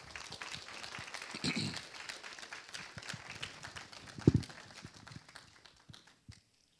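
A crowd applauds with steady, dense clapping that swells briefly, then tapers off and stops near the end, with a few louder claps standing out.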